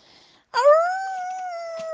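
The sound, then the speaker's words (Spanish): A single wolf howl rises sharply after a brief faint hiss, then holds a long, steady, slightly falling tone, loud, continuing to the end. “Sí, claro que había lobos.”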